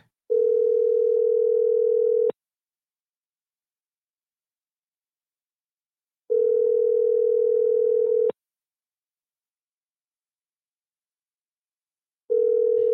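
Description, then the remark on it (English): A phone call to a man's house number rings out with a steady ringback tone, two-second bursts separated by about four seconds of silence, repeating three times with no one picking up and no voices. “Yep, he's not going to answer.”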